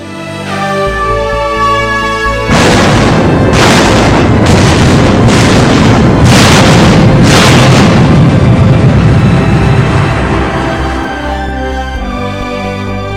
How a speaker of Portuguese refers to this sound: O Hood e o Prince of Wales foram os primeiros a disparar seus poderosos canhões